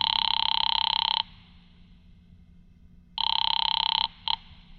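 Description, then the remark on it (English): A telephone rings twice on the line of a call placed from a phone booth, each long electronic trill clear and steady, with a brief clipped start of a third ring cut off as it's answered; no voices. “A little after five, I went to a phone booth and called my client”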